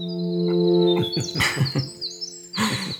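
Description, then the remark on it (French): A winter wren (Troglodytes hiemalis), a round brown bird about 7-8 cm long with a 2 cm tail, sings perched: a long, rapid, high-pitched warbling trill that runs almost unbroken, over a steady low droning hum with a few louder rustling bursts in the middle. “Figurez-vous que derrière ce chant puissant se cache un oiseau qui fait environ 7-8 euh, cm de long, qui a la forme d'une boule totalement brune et qui chante avec une petite queue qui fait 2 cm de long perché perchée dans les airs.”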